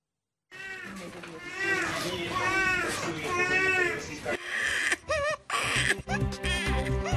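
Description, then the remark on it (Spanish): Ukrainian infants awaiting adoptive parents crying, wailing in long rising and falling bursts for several seconds, followed by broken, choppier cries mixed with background bustle. “En pantalla, bebés ucranianos separados por el conflicto y a la espera de padres adoptivos.”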